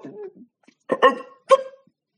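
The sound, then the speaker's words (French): A voice mimics a cat's hiccups: a soft low murmur, then two sharp vocal "hic" bursts about half a second apart, fairly loud and abrupt. “Mais un jour, le chat a eu un hoquet.”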